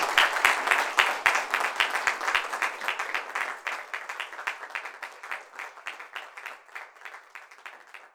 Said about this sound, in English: Ladies and gentlemen, please give a round of applause to all the candidates.